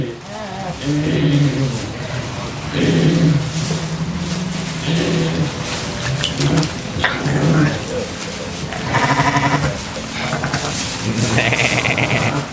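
Several sheep in a barn during lambing season bleat repeatedly and loudly, their wavering calls overlapping one another almost continuously, as if from a crowded flock.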